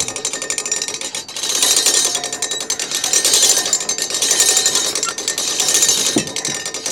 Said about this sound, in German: Das sind ja zwölf Tonnen, die ich da bewege. Zwar mit einer Übersetzung. Jetzt hole ich mal eben dieses Drahtseil aus. Die Apparatur ist eigentlich eine große Handkurbel, mit der er das Metallseil, von dem er gerade spricht, aufwickeln kann.